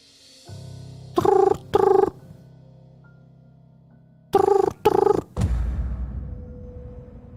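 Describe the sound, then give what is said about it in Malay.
A hotel room telephone rings at night in two double bursts a few seconds apart, each ring short and fairly loud, over a low steady hum with no one speaking. “Bunyi telefon hotel bunyi.”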